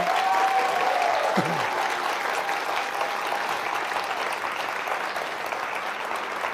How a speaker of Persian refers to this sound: بالاترین امتیاز رو شما و شما دارین خیلی هم عالی و بقیه هفتن خب خیلی خوب پیش رفتن نیاز به تشویق درجه یک دارند